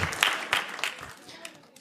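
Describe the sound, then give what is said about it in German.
A short burst of audience applause for a group who recited a Bible verse: scattered, crisp claps of moderate loudness that thin out and fade over about two seconds. “Nochmal ein Applaus für euch.”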